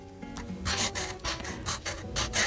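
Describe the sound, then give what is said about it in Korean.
A pen scratches across a postcard bought at a gallery as a note is written on it, in a run of short, raspy strokes with slight pauses between them, a dry scribbling texture heard alone without any voices. “그래서 그날 그 갤러리에서 사왔던 엽서를 꺼내 들었죠. 그리고 아직은 뭐라 정의하기 힘든 제 마음을 적어내려 갔습니다.”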